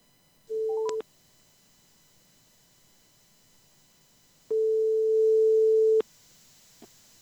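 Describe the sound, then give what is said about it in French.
A telephone call being placed to answer a classified ad: a short electronic tone blip, then a pause and a longer steady ringback tone of about a second and a half, clear, with no one speaking. “Alors, c'est parti, on y va, je lance l'appel.”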